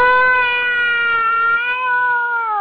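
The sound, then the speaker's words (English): A voice imitates a bungee jumper's scream: one loud, high, sustained 'aaah' held steadily for a few seconds with a slight waver in pitch, alone. “But I mean, I've watched videos and just hear the ah,”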